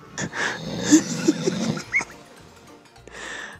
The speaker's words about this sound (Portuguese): Ele ronca igual um trator, tá me dando desespero. Tá bizarro.